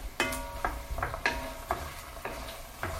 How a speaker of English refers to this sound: I can hear over there I can hear the onion starting to sizzle, so this is coming together just in time. Okay, we'll give those a stir.